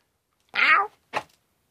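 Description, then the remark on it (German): A tomcat gives one drawn-out meow, followed a moment later by a short, breathy second call, with silence around both and no talking. “So, Kater, rutsch mal.”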